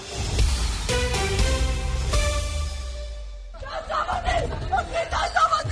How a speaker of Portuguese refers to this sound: Este é o som de um grupo de familiares de reféns israelitas do Hamas a invadir uma sessão da Comissão Parlamentar em Jerusalém. Aconteceu na última hora. Exigem que os legisladores façam mais para tentar libertar as pessoas nas mãos do Hamas.